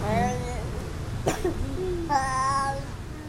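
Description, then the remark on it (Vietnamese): A young child lying in a teacher's lap, not yet finished with a bowl of porridge, babbles in whiny, wordless vocal sounds, breaks off with one sharp cough partway through, then resumes babbling, moderately loud. “bé … vẫn nằm trong lòng cô giáo, thỉnh thoảng ho, thỉnh thoảng ú ớ”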